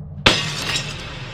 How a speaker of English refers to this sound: Lashing out with unexpected strength, Silas smashes the mirror violently. Not just the glass, but the mirror in its entirety, frame, stand, and all. Its shards shoot off into the gloom at the walls of the tent and seem to dissipate into the darkness.